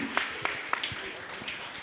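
Soft, steady crowd applause forms a hissing wash of clapping, with a few sharper individual claps standing out at irregular moments.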